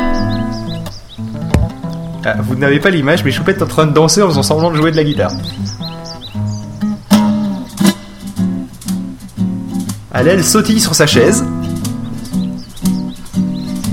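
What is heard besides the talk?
small birds chirping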